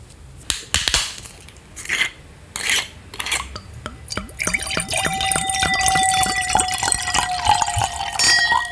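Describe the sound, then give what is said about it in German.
A few sharp glassy clinks and handling knocks, then a steady pour of a drink into a glass for a tasting, its ringing tone rising as the glass fills. No voices. “ich würde sagen, die verkosten wir jetzt auch gleich mal, mhm.”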